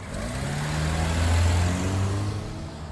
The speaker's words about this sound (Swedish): Sandra bromsade in, stannade till och backade in mot bommen.